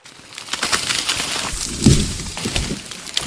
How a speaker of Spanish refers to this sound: El tronco se rompió debido al peso de las cabras y ambas cayeron al río, donde, llevadas por la corriente, sus dueños las apresaron nuevamente.